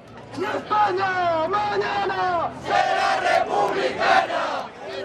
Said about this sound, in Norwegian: Morgendagens Spania blir en republikk, roper deltakerne i demonstrasjonen her i Madrid.